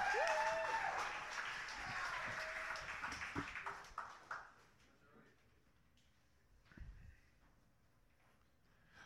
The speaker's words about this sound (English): All right, let's keep that applause going for our next poet up